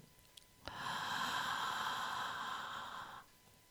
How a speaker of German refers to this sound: Und nun, egal ob du sitzt oder stehst, mach einfach mal einen Ton. Überleg nicht lange, einfach tief einatmen und mit einem Sound wieder ausatmen. Das kann zum Beispiel so klingen.